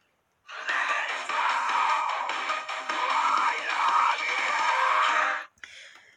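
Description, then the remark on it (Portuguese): A harsh, raspy screamed vocal from a metal song roars the words "I love you" loudly and continuously for about five seconds, then cuts off abruptly, followed by a brief fainter burst. “Não sei se vocês conseguiram entender ele gritando assim, mas I, I love you.”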